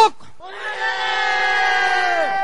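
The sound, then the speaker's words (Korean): A large crowd of soldiers shouts "Mother" together in one loud, sustained unison call, voices blending into a dense, steady roar that holds for about two seconds before tapering off, from the "Missing Mother" segment of the MBC show Stage of Friendship (Ujeong-ui Mudae), aired 1989 to 1997. “크게 동시에 외쳐보십니다. 자, 시작!”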